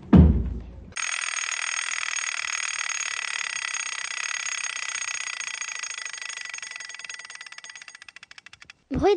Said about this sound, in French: réveil qui sonne.